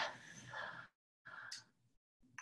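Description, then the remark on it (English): A deep, airy breath drawn in and then let out, followed by the start of another breath. No one speaks. “Take a breath.”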